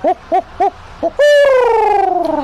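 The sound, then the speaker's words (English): A person imitates a barred owl's hoots: four short rhythmic hoots, then a long, drawn-out descending hoo-aww call, loud with no other sounds. “The barred owl sounds kind of similar to the horned owl. it goes.”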